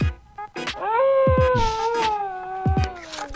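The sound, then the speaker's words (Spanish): A single long wolf howl sound effect rises in, holds steady, then slowly sinks in pitch for a few seconds, with short sharp clicks and bursts scattered around it. “Por ahí, déjeme entrar un lobo, por favor, una cosa así.”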